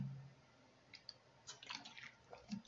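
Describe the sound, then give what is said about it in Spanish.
Someone drinks water, with a few quiet, wet sips and swallows in quick succession over a faint background. No one speaks. “Déjenme volver a tomar agua porque la verdad Sí, nunca había hecho un podcast y sí cansa, ¿eh?”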